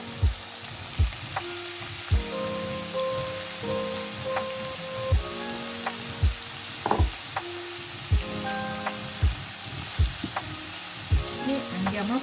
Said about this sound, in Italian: friggere sempre per qualche minuto a fiamma moderata. Il prezzemolo è ben rosolato,